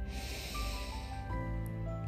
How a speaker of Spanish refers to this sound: Nuevamente tomas una respiración profunda